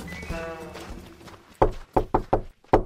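Five crisp knocks on a wooden door ring out: a single rap, then three quick ones, then a final knock, following a brief sustained tonal sound at the start. Little Red Riding Hood knocks on her grandmother's door to call for her.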